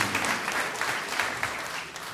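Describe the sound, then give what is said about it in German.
Audience applause, a dense, steady patter of many hands clapping together at an even, fairly loud level throughout, with no voices over it. “Vielen Dank. Applaus”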